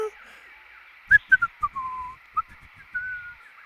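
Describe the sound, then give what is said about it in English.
A man whistles a short, cheerful tune to himself as he happily hops over to the first obstacle in a course, a run of quick bright notes followed by a couple of longer held ones, fairly clear with no talking. “Whistling to himself, … happily hopped over to the first obstacle in the course.”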